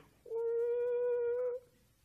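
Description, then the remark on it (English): A single voice imitates a whistling tea kettle with one steady, fairly loud hum-like tone held for over a second. The pitch rises slightly at the end, then it stops abruptly. “And you just sitting there and you see and you listen to the tea kettle go,”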